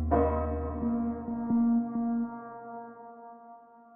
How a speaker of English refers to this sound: The American flag in the window of his room is covered in black, and bells across the US start ringing to announce his death.